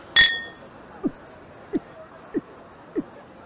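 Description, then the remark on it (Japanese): A single bright clink of glasses in a toast to a new beginning rings out at the start, fairly loud with a short shimmering ring, followed by four soft, low gulping sounds at steady intervals. “それじゃ、お前の新しい門出を祝して、乾杯”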